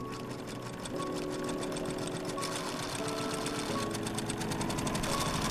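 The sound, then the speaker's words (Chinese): A sewing machine runs steadily in a dressmaker's shop, its rapid needle clatter forming a fast, even mechanical rhythm over a humming motor, fairly loud and with no voices. “这里是一间洋裁店，工作结束了，放下窗帘。”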